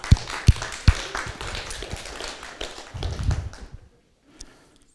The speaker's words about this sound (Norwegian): Kan vi gi en applaus til Jesus? Ja.